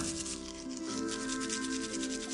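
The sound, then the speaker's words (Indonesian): In a bathroom, a toothbrush scrubs steadily against teeth in quick, even back-and-forth strokes, a continuous raspy brushing that stays level throughout, with a faint steady hum underneath and no one speaking. “Suara sikap beradu dengan gigi menggema dari kamar mandi.”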